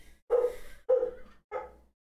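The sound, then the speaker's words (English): A dog named Thatcher barks three times in quick succession, each bark loud and full with a short pause between, the last one slightly softer, with no talking over it. “I'm sorry for the dog barking, guys.”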